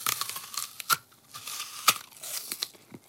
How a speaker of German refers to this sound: isst Apfel. Mit geschlossenem Mund zum Glück.